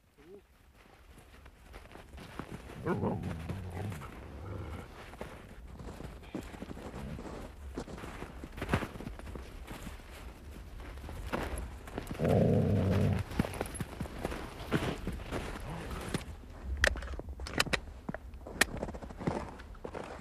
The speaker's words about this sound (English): While he is strapping the white shooting sail onto his rifle, the dogs have lain down on the ice with their tongues hanging out, their breath throbbing.